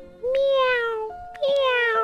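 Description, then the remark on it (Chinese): A kitten meows twice, two high-pitched, drawn-out calls that slide gently downward in pitch, separated by a short pause, heard clearly on their own. “喵喵，嗯，叫了两声，似乎在说：“谢谢你送给我的鱼。”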